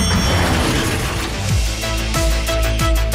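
An elevator door opening: a dense mechanical rumble and ratcheting clatter, with low sliding thumps repeating in the second half and a faint steady tone above. No one speaks.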